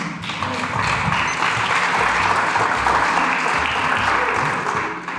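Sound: audience applauding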